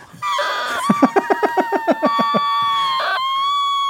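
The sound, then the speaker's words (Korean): A kettle boils on a stove with a steady, shrill whistle, broken midway by a quick series of rhythmic rattling pulses before the high tone carries on alone, fairly loud. “그리고 저 주전자는 아, 끓고 있다.”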